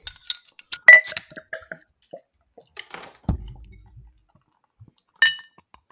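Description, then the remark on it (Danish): Glass clinks and clatter as a glass beer bottle is handled, then a low thud and a brief fizzing release as it is opened and poured into a glass, followed by a last bright clink. No one speaks. “Ja, det er jo en glasflaske, det er derfor, vi kan snakke om, hvordan den ser ud, før vi hælder den op.”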